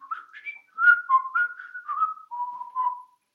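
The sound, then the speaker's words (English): Someone whistles a short melodic tune, a string of clear, pure notes rising and falling in pitch with brief gaps between phrases, moderately loud with no other sounds. “Or we could just be whistle whistlers, you know?”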